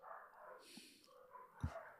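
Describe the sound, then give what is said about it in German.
Muffled barking from other dogs downstairs, a few yaps carrying through walls, with one sharper thump-like bark near the end; faint and indistinct, no one speaking. “Nee, mein Hund ist ganz ruhig. Da sind andere unten unterwegs, die durchdrehen.”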